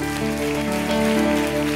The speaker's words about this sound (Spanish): Gloria a Dios. Vamos a darle bien fuerte el aplauso a Jesús.